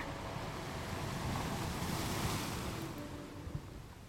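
Ocean waves break on a shore in a steady, rushing wash that swells to a peak midway and then slowly recedes, with a faint breeze beneath and no voices.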